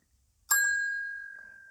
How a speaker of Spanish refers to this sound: Sonó el timbre.